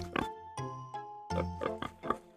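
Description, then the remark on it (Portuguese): Two pot-bellied pigs oink in a quick run of short, nasal grunts, fairly loud, with brief gaps between them and no talking. “O velhinho coçou a sobrancelha e foi buscar os dois porcos barrigudos.”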